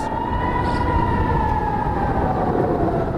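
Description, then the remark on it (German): A steady air raid warning siren in Israel wails continuously at high volume, its sustained tone drifting slightly in pitch over broad background noise, with no voices present. “Denn in den vergangenen zwei Wochen hat dieses Geräusch das Leben der Menschen in Israel bestimmt.”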